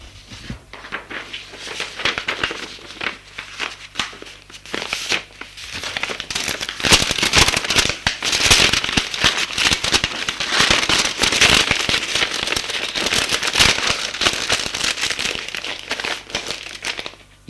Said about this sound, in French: Il signe et met la lettre dans une enveloppe